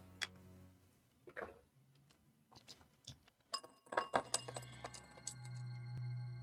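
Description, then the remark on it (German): Several hard little clicks and clinks scatter irregularly as dice are rolled for a perception check, tumbling and clattering across a hard surface, with a brief bright rattle near the end and a low hum underneath; no one speaks. The roll comes up seven. “Öffne, äh, öffne Würfel mal auf Wahrnehmung.”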